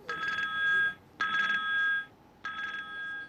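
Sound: telephone ringing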